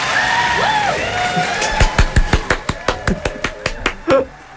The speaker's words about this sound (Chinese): 这个掌声。送给我自己，也送给今天的另外一个 partner。